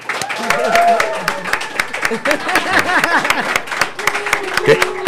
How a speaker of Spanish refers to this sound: Así que yo quiero que ustedes me acompañen a recibir con un aplauso brutal a ….